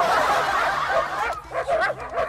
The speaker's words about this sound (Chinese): 谁说你们人类才有英雄梦啊？狗也可以，汪汪汪！